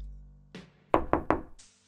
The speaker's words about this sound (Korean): 그리고 곧바로 수사실을 나와 차를 출발시켰고 얼마 안 가 목적지에 도착했다. 강영사는 문을 두드렸다.